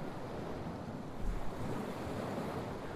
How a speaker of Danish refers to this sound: Jeg står ved stranden og stiger ud på havet.